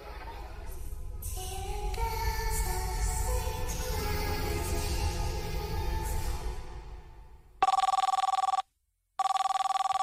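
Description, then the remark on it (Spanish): A telephone rings loudly, two bright electronic ring bursts separated by a short pause, cutting in after a long swelling wash of layered, droning tones. “La mamá de Paco, al colgar el teléfono, se dirige con paso lento hacia la recámara donde está su hijo.”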